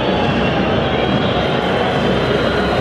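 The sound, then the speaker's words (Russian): A packed football stadium crowd whistles in loud disapproval at Lokomotiv's slow, sideways passing near the penalty area, a dense, continuous shrill wash of whistles blending into a roar that holds steady for the whole stretch, with no pauses. “Снова свист, потому что ну слишком уж академично действует локомотив, да, на чужой половине поля, да, вблизи штрафной, но все передачи поперек, без обострения.”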